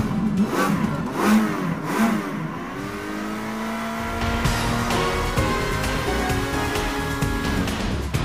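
A car engine revs up loud, a few quick throttle blips followed by a long climbing roar that holds at high pitch, with no voices.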